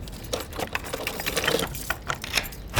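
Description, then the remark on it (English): Metallic jingling and a quick series of clicks and rattles as a key works a lock, followed by a door being pulled open; no one speaks. “Oh, I hear a door.”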